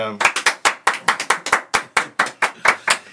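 Steady hand clapping welcoming comedian Eddie King, about fifteen sharp claps in quick, fairly even rhythm, loud and bright, with no voices over it.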